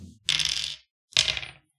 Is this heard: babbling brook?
no